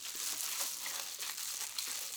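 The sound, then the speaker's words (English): Steady crinkling and crackling of a roll of double bubble foil insulation being handled, a continuous crisp rustle with small sharp snaps, no talking. “So, what is double bubble? It was in the cover photo, but this is the stuff. Comes in rolls.”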